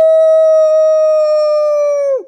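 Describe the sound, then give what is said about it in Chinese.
A storyteller's voice imitating a wolf's roar in a Chinese children's story: one loud, long, high-pitched "aooo" held steadily for about two seconds before its pitch drops sharply as it cuts off. No other sounds accompany it. “他们正吵个不休，听到一声大吼：“ 嗷！”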